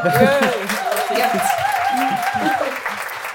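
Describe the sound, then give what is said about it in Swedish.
A short burst of steady applause for a newly written book on integrated sex education, dense rapid clapping lasting a few seconds, with voices calling out and cheering over it. “Ja, åh, en applåd till ja.”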